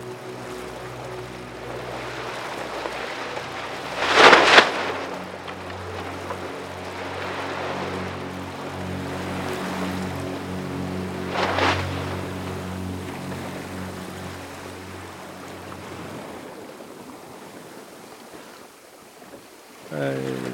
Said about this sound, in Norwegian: Båten slingrer noe forferdelig med vinden rett aktafra. Det er egentlig ikke veldig mye annet å gjøre enn å ha små seil oppe og, og la båten eh, gå i den retningen vi skal.